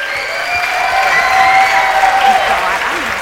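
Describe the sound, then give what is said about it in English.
An audience claps steadily for about three seconds, a dense, loud wash of applause with a few voices and cheers mixed in beneath it. “Let's give him a big hand.”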